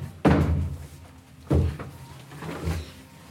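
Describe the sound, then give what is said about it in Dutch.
Two solid wooden thuds about a second apart, a changing cubicle door being pushed shut and knocking into its frame, followed by a softer bump and faint rattle of a latch; a swimming-pool style changing cubicle with two doors. “Oh, ik had altijd zo moeite met die twee deuren dicht doen.”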